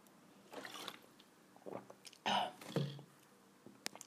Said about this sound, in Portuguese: Ai, estava só a beber água outra vez.